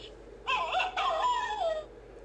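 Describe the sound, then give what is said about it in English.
A fox call: two shrill, wavering cries run almost back to back, the second drawn out and sliding downward. The calls are fairly loud, with no other sounds around them. “The fox sniffs the ground. Fox.”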